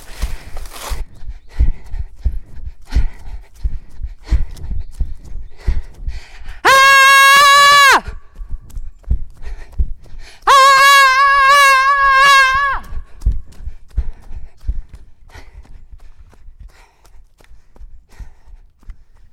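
A woman screams loudly twice, each cry sustained for a second or two with a short pause between, close and piercing over a quiet background of soft tapping sounds.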